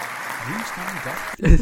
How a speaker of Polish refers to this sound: Wow, w końcu zapamiętałam. Brawo! Takie trudne słowa. Zrobię tu fanfary, jak mi się uda.